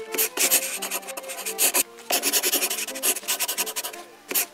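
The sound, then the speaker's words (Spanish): A pen scratches quickly across paper while papers are being signed, in bursty, rasping strokes with brief pauses between them, fairly loud, with no voices. “Firma estos papeles totalmente legales y para nada sospechosos y listo.”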